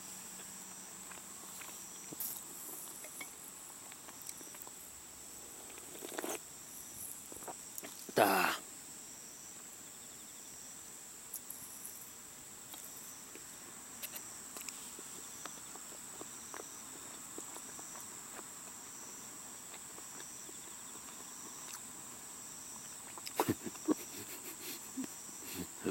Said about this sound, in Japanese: 今、放送事故起きてますよね。僕がもぐもぐしてるだけっていう。